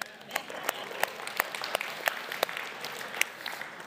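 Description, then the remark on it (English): Light, scattered golf-clap applause from a church audience at Highland giving themselves a hand after reciting a Bible verse together, a soft steady patter with a few sharper individual claps standing out at irregular intervals, fairly quiet throughout. “That was kind of like a golf clap, but that, that's okay.”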